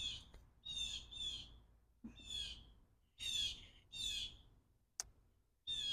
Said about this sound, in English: The bird agrees.